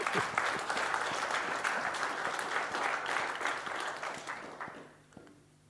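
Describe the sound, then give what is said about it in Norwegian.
An audience applauds steadily, a dense wash of many hands clapping at an even level before tapering off and fading out in the last second. “Ja, vi klapper for det.”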